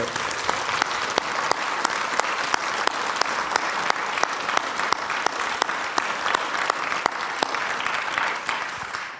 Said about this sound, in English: Let's give the choir a round of applause for.